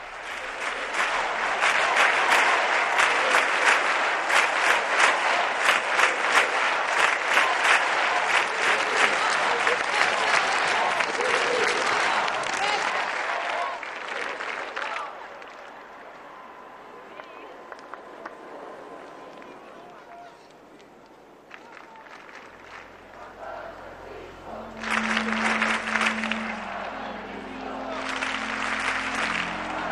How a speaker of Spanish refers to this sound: pues aunque los jóvenes siguen con esos aplausos, Papa Francisco, pero vamos a, ir entrando ya en la parte de más recogimiento.